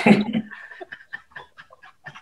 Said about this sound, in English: okay, he's drinking water now. That's not uh, that's not a prostitute in it. That's a that's the dog drinking water.